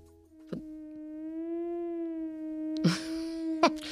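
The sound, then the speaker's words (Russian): A steady, smooth theremin tone holds one mid-low pitch for several seconds, wavering gently up and down as natural vibrato from the player's slight swaying in its electric field, interrupted by a few short bursts of rustling noise. “что если подойти к терминвоксу да.”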